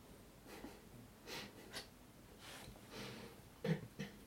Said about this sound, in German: Der Kater schnarcht schon. Er schläft noch nicht und er schnarcht schon.